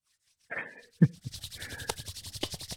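A sharp hand clap, then palms rubbed briskly together in a quick, steady back-and-forth rhythm, a dry swishing friction that keeps going to the end: Mr. Miyagi's clap before he heals a fighter's injured knee. No one speaks.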